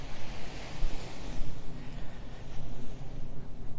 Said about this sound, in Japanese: 今浜辺に来ていてこんばんははじめまして波波音をお届けできればと思ってます